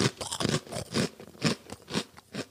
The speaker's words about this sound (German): das hört sich aber nicht an wie echte Chips, ehrlich gesagt. Das sind, pass auf, Linsenchips.